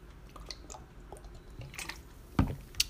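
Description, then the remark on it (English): Quiet wet sounds of someone drinking the last of the water from a bottle, sipping and swallowing, with small squishy mouth noises, a louder gulp or bottle tap near the end, and a sharp click just after. “let me get water all right and the water's almost out great”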